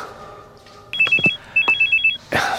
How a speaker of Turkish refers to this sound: Ahşap kapının aralık kanadından içeri girmeden önce çaldı beni bir türlü rahat bırakmayan telefonum. Tam da zamanı.